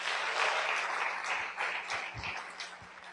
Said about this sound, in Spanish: Decir que esta compañía está siempre lista, que el, el, modelo en el network marketing, que es la compañía de Amway, la mejor opción para cambiar nuestras vidas. Para quien pido un fuertísimo aplauso.